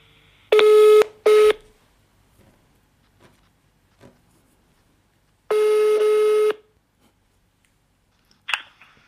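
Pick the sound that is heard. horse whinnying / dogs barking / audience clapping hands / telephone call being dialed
telephone call being dialed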